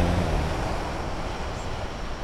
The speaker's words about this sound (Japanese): ちょっと波の音が大きくて聞こえづらかったかもしれませんすいません